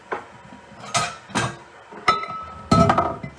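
A ceramic coffee cup clinks and knocks against a kitchen sink several times as it is moved over, fairly loud, with a sharp ringing strike near the end and no talking.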